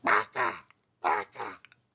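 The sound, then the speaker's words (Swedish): A person imitates a crow's cawing as heard in comedic anime scenes, with four harsh, nasal caws delivered as two quick pairs separated by a short pause, fairly loud. “Det är så många gånger man ser liksom i så här animes, mer av det roliga slaget förvisso, men och så är det alltid liksom någon långt bort så ser man en kråka eller någon fågel liksom, så hör man bara”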